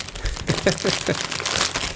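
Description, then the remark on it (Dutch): Steady, dense crinkling of plastic grocery packaging, a continuous rustle of crackles for about two seconds, with a brief faint vocal sound early on. “Dus ik pak nu heel even snel de, de boodschappen van de boodschappen erbij”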